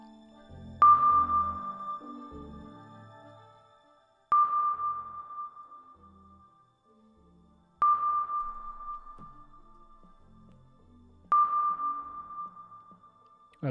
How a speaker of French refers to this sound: au fond de l'océan, le sonar.